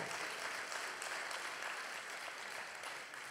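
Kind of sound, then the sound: crowd, audience applauding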